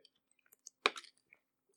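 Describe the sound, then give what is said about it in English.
A single quick sip of water, fairly loud, with a brief slurping rush, surrounded by faint mouth clicks and small swallowing noises. No one speaks. “I'll just sip water.”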